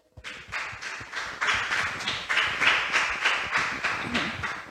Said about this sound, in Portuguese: Aplauda, Senhor.